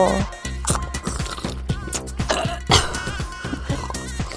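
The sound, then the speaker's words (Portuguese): Someone coughs and sputters repeatedly while choking on a thick, viscous drink of blood, with gulping, throat-clearing bursts over a dense background of other sound. “Devagar para não se engasgar, meio viscoso, denso, e se enfiar água lá abaixo rápido, você acaba se engasgando.”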